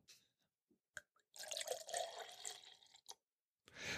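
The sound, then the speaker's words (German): Cashew milk is poured in a steady gurgling stream for a couple of seconds, preceded by a few small drips and taps and followed by a brief second splash, with no talking. “Äh, ich habe Cashew-Milch.”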